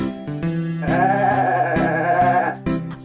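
A goat gives one long, loud, wavering bleat lasting well over a second, close by, with short harsh bursts just before and after it and no voices.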